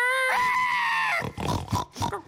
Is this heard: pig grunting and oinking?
yes